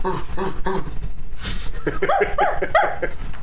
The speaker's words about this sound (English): That sound you hear is a dog being murdered